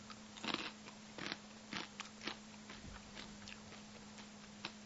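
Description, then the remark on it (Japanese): Crunching of a UHA Mikakuto dried shiitake snack, toasted soy sauce shiitake flavor, that looks just like a dried shiitake mushroom: several sharp, irregular bites in quick succession over a low steady hum, with no talking. “あのね、食べ方のコツとしてはね、ポリポリポリってか噛んで食えるんだけど、うん。”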